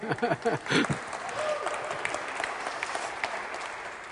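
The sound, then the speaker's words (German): An audience claps in a steady wash of many hands, dense and fairly even throughout, with a few brief voice-like sounds at the very start. “ich könnte dann nachher sagen, ob das jetzt berechtigt war, da zu klatschen oder nicht.”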